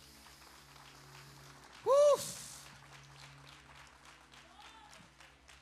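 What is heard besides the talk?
audience applauding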